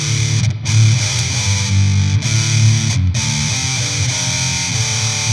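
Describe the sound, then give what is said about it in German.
Heavily distorted electric guitar played through a distortion pedal in fat mode with bass and treble turned fully up. It plays sustained chords with a dense, buzzing low end and bright fizz, loud and steady with brief breaks between chord changes. No one speaks. “Best Bass und Treble sind jetzt voll aufgedreht und du bist im, äh, im Fat-Mode.”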